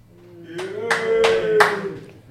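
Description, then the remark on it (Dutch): Four sharp, evenly spaced claps from a live audience called on by the host ring out over about a second, fairly loud, with a low sustained voice or hum continuing underneath. “Ik ga terug het publiek eh, inroepen.”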